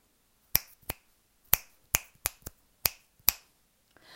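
A series of sharp, bright finger snaps, seven of them in an uneven rhythm, each a crisp click with a quick decay, followed by a faint rustle at the end.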